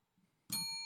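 A single bright doorbell ding sound effect strikes suddenly after a near-silent moment and rings on with a clear, sustained metallic tone. It's loud, with no voices.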